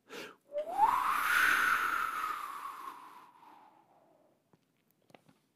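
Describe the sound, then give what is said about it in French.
A voice imitates wind blowing harder: one long, breathy whooshing whistle that swells and rises in pitch, then slowly fades and falls away, followed by a few faint clicks. “Le vent, il a commencé par souffler doucement.”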